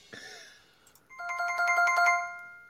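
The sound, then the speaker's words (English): A bright electronic correct-answer chime: a short descending tone, then a rapid warbling run of high, bell-like notes that swells louder before fading, heard alone with no voices. “Nope, that's the sound of being correct.”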